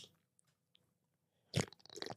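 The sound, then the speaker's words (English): After a near-silent pause, loud, wet mouth sounds of someone drinking sea oil, with smacking and squishing noises that continue to the end. “Have some sea oil. Don't mind if I do.”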